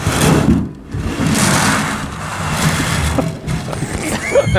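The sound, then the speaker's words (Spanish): A tambourine loaded with lead pellets is rolled and shaken as a foley effect for a Hawaiian seaside ambience, making a continuous rushing hiss that swells and fades like waves washing ashore, fairly loud, with no talking. “Traemos una pandereta cargada de bolitas de plomo”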